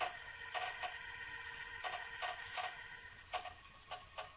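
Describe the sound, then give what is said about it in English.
Nails squeak and creak in short, strained bursts as a wooden box lid is pried loose, coming in an uneven series of pulls against a low, steady background. “He's taken the lid off the box. I can hear the nails squeak.”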